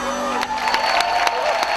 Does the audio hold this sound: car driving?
no